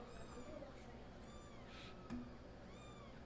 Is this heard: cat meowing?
yes